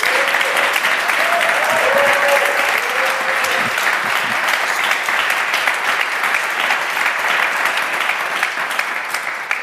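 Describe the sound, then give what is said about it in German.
Sustained applause from an audience welcoming two of a book's three authors, Svanti Almas and Christoph Magnussen: a dense steady wash of many hands clapping at once, loud and continuous for the whole stretch, easing slightly at the very end. “Äh, begrüßen Sie an dieser Stelle mit einem vielleicht äh, fast schon unnatürlichen Applaus, vielleicht nochmal äh, zwei der drei AutorInnen dieses Buches, Svanti Almas, Christoph Magnussen.”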